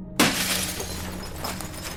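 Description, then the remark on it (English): Glass shatters suddenly and loudly, a sharp crash followed by a scattering of tinkling fragments that ring and settle over the next couple of seconds, with no voices. “I didn't register the broken glass.”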